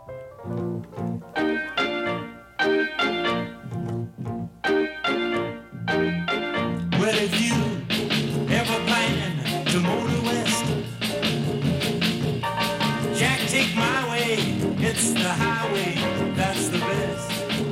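A rock and roll recording plays, opening with punchy stop-start band hits before the full band kicks in with a dense, driving groove that stays loud and steady, with no one talking.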